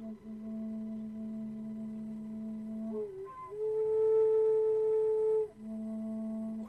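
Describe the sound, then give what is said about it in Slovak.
A steady, breathy fujara flute tone holds a low note, jumps to a brighter overtone for a couple of seconds, then drops back to the low note. Airy breath runs under the tone, and no one speaks. “lebo úplne najspodnejší tón, keď dýcháš, keď robíš jogu, tak nepočuješ ten dých, ale keď cvičíš s pišťalou, tie rozímania, tak počuješ dých.”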